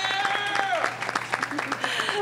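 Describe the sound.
An audience breaks into steady, dense applause, many hands clapping at once in a continuous rattle, with a few cheering voices mixed in throughout the couple of seconds, welcoming a special guest on stage.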